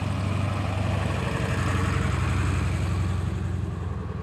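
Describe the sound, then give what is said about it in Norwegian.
Large trucks and machines at a big construction site at Aulestad in Gausdal rumble, a deep, steady diesel drone with a throbbing low end that holds loud and constant, easing off only slightly at the very end. No voices. “Det kommer store biler og maskiner her.”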